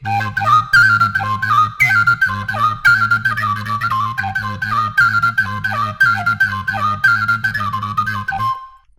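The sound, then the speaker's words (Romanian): A Romanian fluier plays a fast, lively sârbă folk dance melody of quick repeated high notes over a steady low hummed drone, continuous for about eight seconds before stopping abruptly. No one speaks. “Din fluier”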